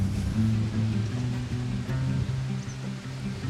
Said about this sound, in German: Und wie man hört, ist es irgendwie sehr windig.